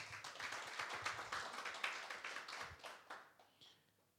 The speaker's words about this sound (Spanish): Un fuerte aplauso para nuestro Señor.